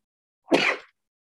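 A single abrupt sneeze, caused by spring hay fever (allergic rhinitis), bursts out alone, a sharp breathy explosion lasting under half a second before silence returns.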